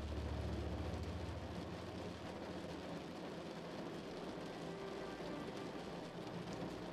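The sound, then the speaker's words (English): Heavy rain pours down steadily outside in a dense, continuous hiss, with a deep low rumble underneath at the start. No voices, just the full, even wash of rainfall throughout. “Outside, the rain continues to pour down, creating a break for everything of nature.”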